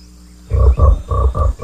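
A frog croaks in a quick series of about five low, throaty pulses, loud, following a brief quiet moment with faint background hum.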